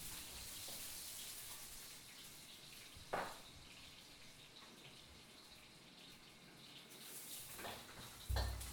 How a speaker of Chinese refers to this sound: 没错，吼，就是这个声音，这个就是呃炒菜的声音，有没有？超级有画面的，对不对？大概一整天后，时时刻刻都会听到炒东西的声音，一下炒这个，一下炒那个